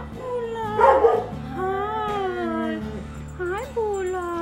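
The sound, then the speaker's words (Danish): Several dogs at an animal shelter in Rødovre call out together in a noisy, overlapping chorus, with drawn-out yelping cries and a louder burst near the start, continuous throughout, with no talking. “Hvis der er en, der først starter, så begynder de andre bare at svare. Det er en råbekor.”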